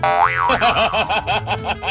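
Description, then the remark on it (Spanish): A cartoon spring boing: a loud twangy note bends up and back, then wobbles in a quick rapid vibrato that repeats about a dozen times over two seconds, with no talking. “¿qué le dijo un resorte a otro resorte?”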